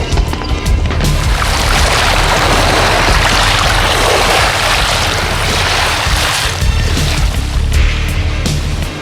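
A winch on the Deep Quest slowly hauls a submarine up out of the water after the ship's manual gripper arm grabs it: a steady low mechanical drone beneath loud, continuous rushing and churning water, sustained without a break, with no voices.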